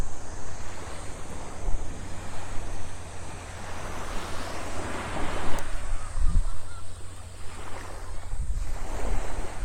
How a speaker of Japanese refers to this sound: 少し人がいてやっぱり朝は静かですねちょっと海風で海風がマイクに入ってしまうかもしれないですが。